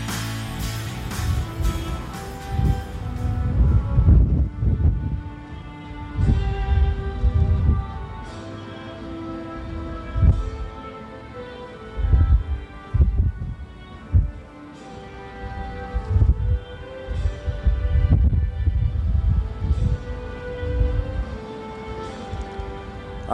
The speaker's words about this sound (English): as you can tell, windy conditions here at Duncan today. 72 degrees will be our game time temperature. The winds are blowing out of the southeast at 24 miles per hour, and they are gusting to around 40 today.